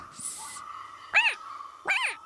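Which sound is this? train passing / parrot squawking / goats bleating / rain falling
parrot squawking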